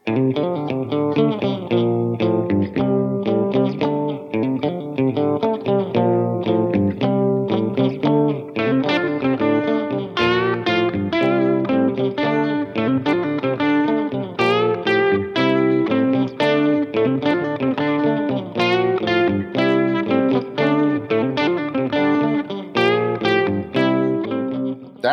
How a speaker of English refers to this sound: He gave me some lessons, so I, have really been jamming on the guitar of late. Oh, okay. Well, let's hear some of that uh, guitar uh, as you have learned from Professor Frenzy.